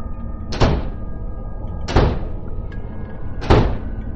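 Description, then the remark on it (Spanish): Three doors of a house slam shut one after another early in the day, at slow, even intervals, each a sharp, heavy bang with a brief ringing tail over a steady low background hum. No one speaks. “Era temprano y de repente azotaron las puertas de la casa, se escuchaban sonidos por toda la casa.”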